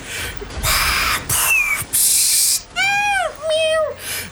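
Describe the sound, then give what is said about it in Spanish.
A cat meowing: a run of harsh, raspy cries followed by two clearer, drawn-out tonal meows that bend downward, fairly loud with no talking. “fue un gato?”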